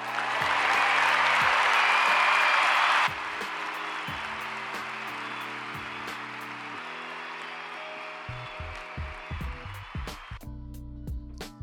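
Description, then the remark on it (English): A crowd applauds as a shout-out to mothers, a dense wash of clapping that is loudest for the first few seconds, then eases slightly and continues over a low background tone until it fades near the end. “Round of applause.”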